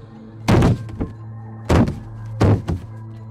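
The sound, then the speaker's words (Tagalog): Loud, heavy, nonstop banging on a door by a monster, three forceful thuds each followed by a lighter knock, spaced about a second apart, over a low steady hum, with no voices. “Walang tigil sa pangangalampag ang bingil sa pinto habang nagpapaliwanag si Lolo.”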